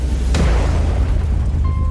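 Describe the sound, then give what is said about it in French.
A Winglider glider crashes with a sudden heavy boom, a sharp impact followed by deep, sustained low rumbling, with a faint thin tone emerging toward the end. No one speaks. “Il s'est écrasé.”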